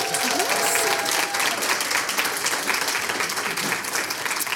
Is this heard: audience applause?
yes